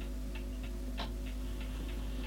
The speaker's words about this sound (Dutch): Giethoorn 1962. Gezellig gesprek. Wat zenuwachtig klokgetik. Opname start met slaan van klok. Slaat na 30 minuten weer.